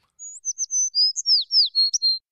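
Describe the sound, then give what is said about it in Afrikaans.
A small bird chirps in a quick series of high, bright notes, about a dozen short tweets and whistles close together, clear with no other sounds. “Julle het reg gehoor, dis 'n voeltjie.”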